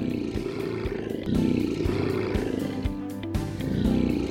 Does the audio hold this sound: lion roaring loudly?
yes